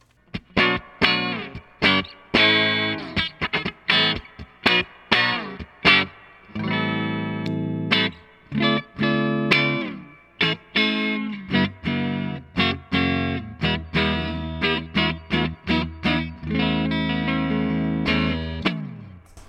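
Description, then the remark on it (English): A clean electric guitar through a tube amp plays alone, recorded straight into a digital recorder without post processing, mixing sharp single-note plucks with ringing, sustained chords, fairly loud, with a bright, clear tone and a touch of the amp's spring reverb. “For now, we're going to start with the clean sound, and this is what that sounds like.”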